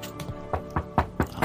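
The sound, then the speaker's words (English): A steady series of about seven dull knocks on a door, evenly spaced and fairly quick, not loud, with no voices over them. “we're knocking on Fee's mom's, door”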